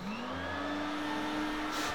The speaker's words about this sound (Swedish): Här kommer dammsugaren.